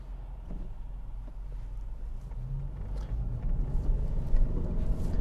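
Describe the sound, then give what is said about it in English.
Steady low rumble and engine drone from inside a moving car, a continuous road hum that grows slightly louder toward the end, with no one speaking. “Sorry, folks, I'm a little distracted because I'm in a car.”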